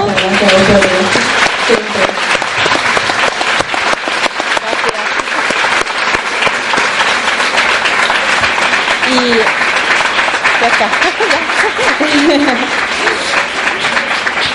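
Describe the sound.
Loud, sustained audience applause fills the whole stretch, a dense rapid clatter of many hands clapping at once, with a few voices and cheers rising faintly underneath.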